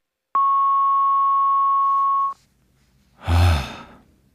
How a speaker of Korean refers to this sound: 연결이 되지 않아 음성 사서함으로 연결되며 삐 소리 후 통화료가 부과됩니다.